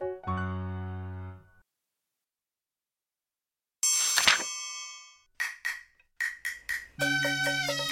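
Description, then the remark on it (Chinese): A page-turn chime signalling when to turn the page while following a children's story in the book: a held bell-like tone, a brief pause, then a bright shimmering strike, a quick run of short ringing dings, and a final sustained tone. No one speaks. “大朋友小朋友，如果你们搭配着书看，那么听到的声音就代表要翻页喽。”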